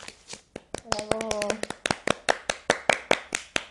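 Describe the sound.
Steady, rhythmic clapping rings out in sharp, evenly spaced bursts. A brief voiced sound rises over the claps near the start, and the applause keeps its brisk beat to the end.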